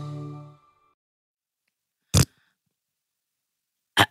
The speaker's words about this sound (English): that fart really threw me off. that was real, everyone. That was real.